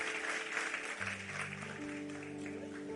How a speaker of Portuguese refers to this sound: Vamos aplaudir o Senhor, vamos ficar em pé, vamos embora para casa, que Deus nos abençoe.